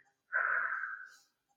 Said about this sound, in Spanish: Y a la hora de expirar hacemos lo mismo pero al revés. Ese globo que hemos hinchado lo vamos a ir deshinchando poco a poco para echar el aire por la boca.